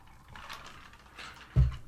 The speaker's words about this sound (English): Pause while I take a little sip of my Coca Cola Classic from my Pittsburgh Steelers cup.